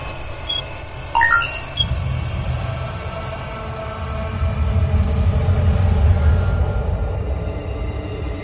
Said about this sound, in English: And there's our black hole. Experience of a lifetime, Captain. Let me put this on audio. We should be able to hear the magnetic resonance field.